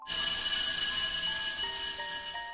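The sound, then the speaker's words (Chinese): A school class bell signalling the start of a lesson rings out in one continuous, bright metallic peal, high-pitched and fairly loud, with layered shimmering overtones and no voices present. “我刚走到教室，上课铃声就响了。”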